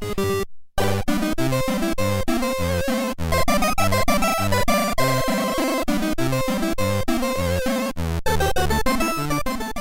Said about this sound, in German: das ist natürlich The Entertainer von Scott Joplin. Und das erklingt genauso im Intro des Spiels Samantha Fuchs Entkleidungspoker, das man 1988 so auf dem System Commodore mit K gespielt hat.